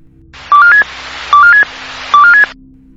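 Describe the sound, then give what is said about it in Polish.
A railway radio emergency stop alarm signal from a simple, fairly old system: three short bursts, each a quick rising sequence of three electronic beeps over a hiss of radio static, loud and evenly spaced, with no voices. “Mało przyjemny dźwięk, ale właśnie taki ma być. Jest to prosty i dość stary system, który do szerszego użycia wszedł po katastrofie kolejowej pod Otłoczynem w 1980 roku, chociaż wprowadzany był już od 1972 roku.”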